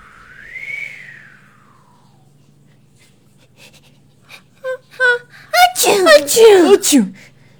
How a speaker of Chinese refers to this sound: 小蚂蚁和抱着小蚂蚁的蜘蛛阿姨和抱着小蚂蚁的蜘蛛阿姨的松鼠叔叔打了一个好大的喷嚏。他们的喷嚏声吓到了路过的孔雀大爷。